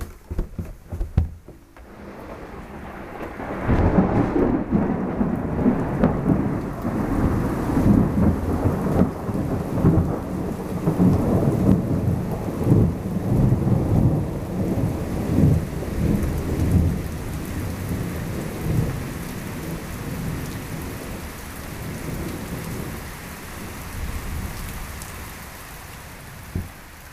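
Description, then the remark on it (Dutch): Heavy rain pours steadily while deep thunder rumbles and rolls over the Groningen countryside in the Netherlands, swelling after a brief quiet start and lingering through a long, dense downpour with no voices. “Later die dag buldert het onweer over het Groningse platteland. Terwijl buiten het water met millimeters tegelijk uit de hemel valt, worden de deuren en ramen van Oosterhout gesloten.”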